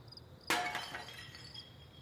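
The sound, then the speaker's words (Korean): A man strikes a white object that he carried under his arm and set down in a dimly lit, deserted street. A single sharp impact rings out, instantly followed by a crisp burst of shattering glass that trails off into tinkling fragments, loud against a quiet background. “다음 순간 뭔가를 날카롭게 타격하는 소리가 나고 바삭 깨지는 소리가 이어졌다.”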